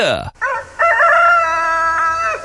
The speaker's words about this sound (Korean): 닭이야 요번엔 닭이에요 이렇게 연세가 있으신 닭 같아요. 예. 닭 소리 오늘 각종 동물 소리 들으실 수 있습니다.